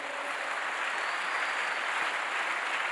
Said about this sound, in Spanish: Dele un aplauso fuerte al Señor, por favor.